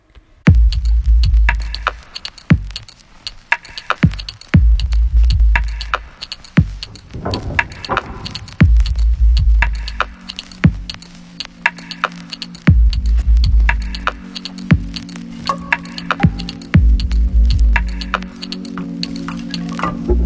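A glitchy electronic music track: sharp clicks and crackles over recurring deep bass pulses, with sustained synth tones entering midway. Loud and purely instrumental, with no voices.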